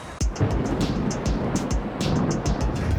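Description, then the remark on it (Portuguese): A large vehicle's engine rumbles steadily, with deep low-end drone and repeated short hissy bursts, as a number 61 city bus pulls away from a stop amid street noise. “Agora eu vou pegar o 61, aquele ali que está saindo, ou o próximo para me chegar mais ou menos no horário.”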